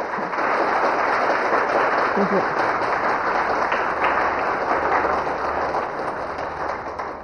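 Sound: audience applause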